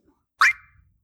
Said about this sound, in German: es ist der Menücursor von Final Fantasy